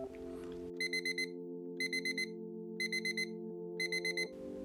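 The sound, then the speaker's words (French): An electronic alarm clock beeps in repeated bursts of four quick tones, sounding four times in a steady rhythm over a sustained musical tone, clear. “Le réveil annonçait le début de deux journées fantastiques.”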